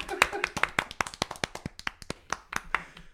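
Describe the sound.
Applause welcoming a guest, made of sharp, distinct hand claps, roughly a steady patter of eighteen or so, bright and crisp, with a faint cheer or voice mixed in at the start before it thins out.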